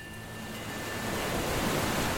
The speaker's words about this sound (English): Between the ships, the sea was boiling and flashing with foam as something big thrashed in the water.